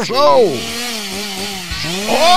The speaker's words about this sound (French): oh! Wow! il y avait de la scie mécanique.